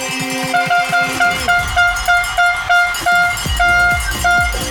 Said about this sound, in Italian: È che quella trombetta è inesauribile. Certo, è manuale. Devono romperla.